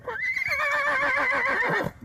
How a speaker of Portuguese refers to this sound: Este é o meu cavalo lusitano, uh, Chelim, uh, mas não está trajado uh, à portuguesa, mas trajado à maneira dos boros da África do Norte.